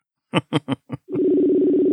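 A few quick blips give way to the steady, continuous ringing tone of an outgoing phone call that hums on unbroken, fairly loud, with no talking.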